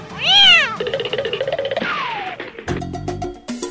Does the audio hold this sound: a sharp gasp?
no